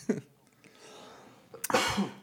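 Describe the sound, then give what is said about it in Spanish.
Two fairly loud coughs, a short sharp one at the start and a heavier, rougher one near the end, with a quiet pause between them and no talking. “Siento que ya todos se ponen nerviosos cuando uno Cuando cualquiera tose.”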